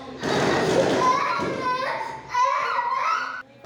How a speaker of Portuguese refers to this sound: O espetáculo de luzes e som pode ser sofrido para animais e crianças autistas sensíveis ao barulho. O barulho dos fogos é acompanhado pelo choro